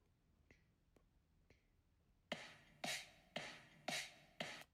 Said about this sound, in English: Wait, do we want to hear the kick again?